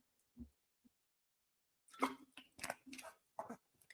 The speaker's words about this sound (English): But in res- in regard to that, let me get a sip of water here, you guys.